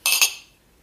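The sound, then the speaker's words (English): Two quick bright clinks of glasses struck together in a toast, crisp, followed by a short ringing tail that fades within half a second. “all right so, well here we cheers.”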